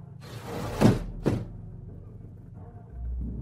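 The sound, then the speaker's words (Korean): A small side window is forced shut, its metal grinding and sticking as it slides with a rough, scraping rush that ends in a firm thump, followed by a low, steady background rumble. No one speaks. “창문이 닫히는 순간 그 소름 끼치는 머리와 나는 유리창 하나를 사이에 두고 마주보게 되었다.”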